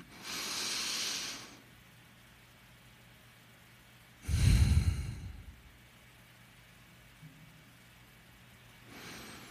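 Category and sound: human body sound, breathing exercise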